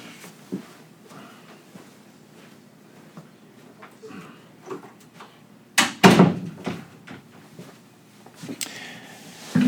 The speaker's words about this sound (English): I'm going to shut this door here.